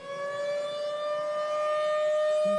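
A steady, sustained alert siren holds a continuous piercing tone throughout, loud and unbroken with bright overtones, and no voices are heard over it.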